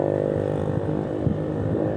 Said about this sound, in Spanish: La verdad es que encanta la gente pobre cuando va con su moto con alto sonido ya.